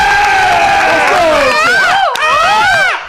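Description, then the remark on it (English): Several men's voices loudly imitate a bird call, overlapping in wavering, swooping high-pitched whoops that rise and fall together for about three seconds, sounding like a rowdy group cheer. “Bird call from the boys there.”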